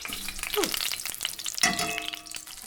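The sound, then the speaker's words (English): Grease frying in a pan, a steady hiss of crackling and popping, broken by a couple of short metallic scrapes as the food is stirred. No one speaks. “Now, this is going to generate a lot of grease.”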